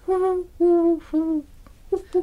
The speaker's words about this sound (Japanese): ねえこれ結局何だったんだろう鳩だったっけえー、っとなんかね鳩じゃないですか鳩鳩なはずですよ、うん、なんかのねあとあれでもなんでさああれ夏ですよね多分泣いてるの夏の夜のイメージだけどあんまその季節では意識したことないけど田んぼの方から夕方ぐらいに聞こえる、うん、夕方田んぼの方から暑い日に